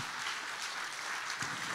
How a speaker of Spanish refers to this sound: Dale el aplauso fuerte al Señor en esta hora.